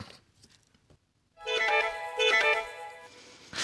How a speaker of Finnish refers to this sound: Soita Pasi meille nyt se torvi, niin kuunnellaan se kerran ajatuksella.